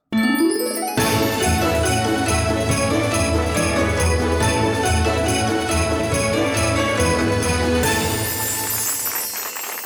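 A festive Christmas jingle for a show's Christmas special, with bright, tinkling sleigh bells over a steady beat and warm bass, opening with a quick rising swoosh and thinning out near the end. No one speaks.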